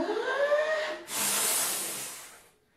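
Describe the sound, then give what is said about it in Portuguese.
A voice imitates a wolf blowing hard at a small brick house: a short strained, wavering vocal hum, then one long, loud, breathy whoosh of air that holds steady for over a second before cutting off. “Soprou novamente mais forte e nada.”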